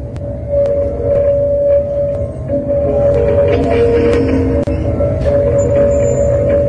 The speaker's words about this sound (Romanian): Da, în și sunetul este cules cu o instalație inginerească, o artistică făcută de el. Și iată, ăsta este sunetul de astăzi, iată cum sună o piatră în, în descoperirea uh, artistului columbial Leonel Vasquez.